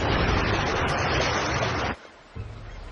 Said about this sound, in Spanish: Entonces el avión emergió y las olas lo mecieron suavemente.